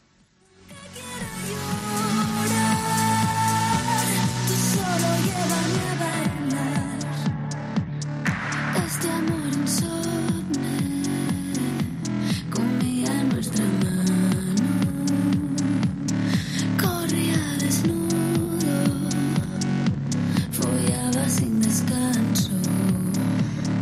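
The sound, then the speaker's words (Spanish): A techno dance track plays at full loudness: a steady, driving four-on-the-floor beat under layered synth chords and bright buzzing textures, continuous for over twenty seconds with no voices. “quiero hacer una canción tecno, pero quiero hacer, hacer una canción de baile.”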